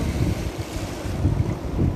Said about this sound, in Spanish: Sigue conectándote con las olas del mar que te van acabando de aflojar y aflojar la mente y abrir el tercer ojo.